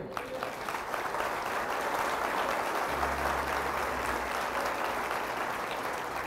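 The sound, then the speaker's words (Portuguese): A large crowd claps steadily and densely for several seconds, a sustained wash of applause filling the room, with a low hum entering partway through. “Você pode dar um aplauso a ele?”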